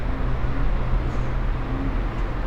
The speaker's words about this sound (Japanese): 鴨川のほとり静かな印象ですけど対岸に川端通りがあるので結構車の音がうるさいです